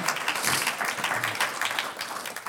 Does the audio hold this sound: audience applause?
yes